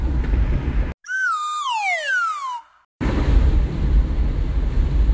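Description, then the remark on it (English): A single whistle tone slides steadily downward in pitch for about a second and a half, set off by abrupt silence between bursts of loud, rumbling wind-like noise. “Y'all heard that whistle going.”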